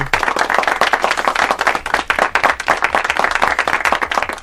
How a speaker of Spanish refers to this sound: Bueno, seguimos. Eh, pido un aplauso, por favor. Pido un aplauso.